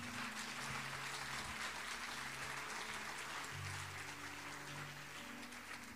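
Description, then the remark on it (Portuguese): A large crowd of believers claps loudly and steadily for several seconds, offering applause to God, the 'King of Glory', a dense wash of applause with low sustained musical tones humming underneath. “Quem crê, dê um aplauso bem forte ao Rei da Glória.”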